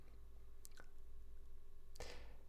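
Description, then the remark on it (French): A few quiet chewing sounds, crisp crunches and moist squelches as a small bite of fruit is slowly chewed, with a brief pause between bursts over a low steady hum and no talking. “Et enfin, si c'est un fruit ou quelque chose qui peut se manger, on peut euh, croquer un petit bout, prendre le temps de le mâcher, ressentir le goût qui se dégage.”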